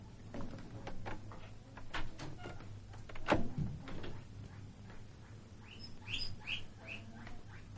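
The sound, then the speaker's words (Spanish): A woman shuts the door of her bedroom with one sharp, solid thud over a steady low hum and soft ticking. A few high, quick bird chirps follow near the end. “Se gira y cierra la puerta.”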